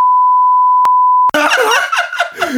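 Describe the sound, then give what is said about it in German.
A loud, steady censor bleep, added in editing to cover a spoken name, holds one flat pitch for just over a second, then cuts off abruptly as a voice bursts in with laughter. “Junge, jetzt muss ich schon wieder in der Nachbearbeitung des Piepsen, du.”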